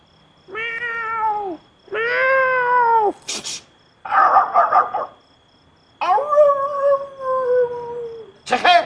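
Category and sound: animal, dog howling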